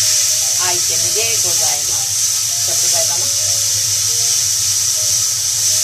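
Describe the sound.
Ground pork sizzles steadily in a pan, a loud continuous hiss and crackle throughout, with a voice speaking briefly over it in the first half.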